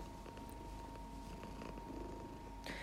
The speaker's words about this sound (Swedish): Okej, ja, nu ser jag förresten att eh, ni hör att min katt kurar, vilket jag ber om ursäkt om. Men eh, ja, nu måste hon vara här och då får hon vara här.